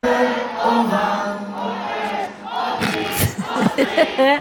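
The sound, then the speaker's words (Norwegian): A large concert crowd cheers and shouts in a loud, sustained roar of many voices, with sharper bursts of yelling and whistles rising near the end. “Og så blir det publikum.”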